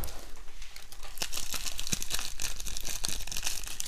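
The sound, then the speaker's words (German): A crinkly bag of fortune cookie crumbs, with a paper fortune slip inside, being opened: nearly four seconds of steady, bright crackling and rustling punctuated by sharper snaps, fairly loud, with no talking. “Das stimmt, ich habe einen, also ich habe, einen Sack mit Bröseln dabei und da ist ein Zettel auch drin. Also lass, das noch, lass das noch öffnen.”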